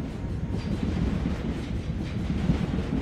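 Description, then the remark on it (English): A train rumbles steadily overhead, a loud, continuous low roar with faint rhythmic clatter, heard from beneath as it passes across a Victorian-built railway arch housing the South London Makerspace in Herne Hill, South London. “South London Makerspace um, is in a railway arch, which are uh, nearly all Victorian built railway arches, and there's something like 10,000 of them across the UK and Scotland.”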